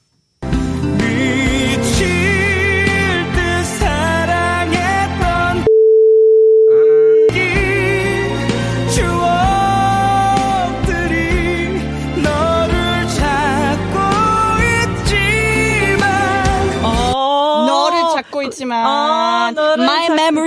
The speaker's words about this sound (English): All right, we're going to now have to take a listen to the actual song played at normal speed and see if we can check our answers.